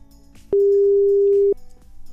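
A single loud, steady telephone tone sounds for about a second, a flat electronic beep over faint background noise, with no one speaking, as a call placed live on RDP Internacional radio goes unanswered.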